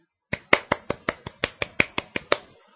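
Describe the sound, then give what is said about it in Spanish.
A short burst of congratulatory applause: about a dozen sharp, evenly spaced claps from what sounds like one pair of hands, steady and fairly quick, ending abruptly with no voices over it. “Un aplauso para él.”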